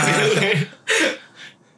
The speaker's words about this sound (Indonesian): Oh iya sorry ya sebelumnya gue ah. lagi agak batuk jadi kalau ada suara-suara ini ya maaf gitu.